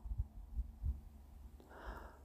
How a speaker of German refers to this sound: Ich bin sicher an ihrer Brust, weil ich ihr Herz schlagen höre.